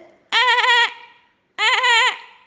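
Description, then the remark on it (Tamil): Two loud, harmonically rich braying calls, each about half a second with a wavering pitch and a short pause between them. The calls come from a human voice imitating a donkey's bray, voicing the lion cub Simba's failed attempt at a roar in a told story. “உடனே அவங்க அப்பா சொன்னார் அச்சோ சிம்பா குட்டி இது கர்ஜனை இல்லடா கண்ணா இது கழுதையோட கணக்கிற சத்தம் அப்படின்னு சொன்னாங்க”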